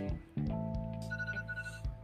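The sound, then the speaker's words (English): A kitchen timer going off for food in the oven: a steady, buzzy electronic tone with a higher pitched beep that pulses a few times, fairly loud, with no talking over it. “Oh, not my timer going off, y'all. I have food in the oven, but it is what it is.”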